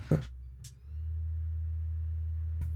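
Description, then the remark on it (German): A PlayStation console powering on: a click, then a single short high-pitched electronic beep, followed by a steady low hum that continues to the end, with another click near the close. “oh, so das Piepen Geräusch. der Playsee”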